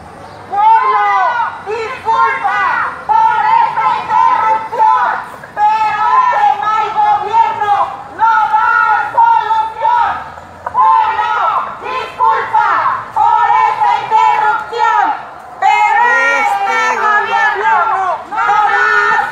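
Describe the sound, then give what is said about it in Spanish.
A large crowd of retirees protesting in Chilpancingo, about 5,000 people from various parts of the state, shouts and chants together, a loud, dense mass of raised voices that surges continuously for about twenty seconds with only brief dips between bursts. “Bueno, así estuvieron manifestándose ayer en Chilpancingo.”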